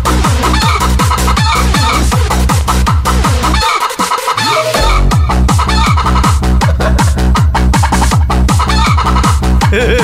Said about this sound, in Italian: Eccola lì la gallina sculacciata, brava, brava, brava, brava, brava, brava, eh, brava.